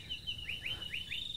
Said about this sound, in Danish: Og nu, nu er vi her så, og det, det vrimler med fugle, og, og man kan høre... Jeg tror, det er brølaber, man kan høre i baggrunden, det vil jeg sige.